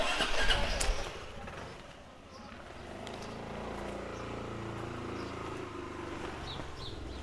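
A motorcycle engine is started and a passenger climbs on behind; after a brief rustling burst the engine settles into a steady, low, buzzing idle that hums on evenly to the end.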